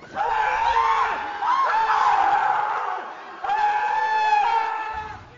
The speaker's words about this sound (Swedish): Skrik!